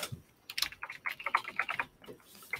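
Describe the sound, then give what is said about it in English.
Quick, uneven tapping of keys on a regular, non-mechanical computer keyboard, a burst of sharp clicks that thins out toward the end, with no talking. “I personally like hearing the clickety clackety.”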